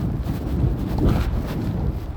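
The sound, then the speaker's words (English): Loud, steady wind buffeting a microphone outdoors, a continuous low rumbling roar with gusty swells and no other clear sounds for a couple of seconds. “wow, it's really windy, and I'm really sorry about that”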